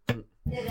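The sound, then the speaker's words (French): A sneeze in two bursts: a short, sharp voiced catch, a brief pause, then a longer, hissing blast of breath, fairly loud, with no talking around it. “À tes souhaits.”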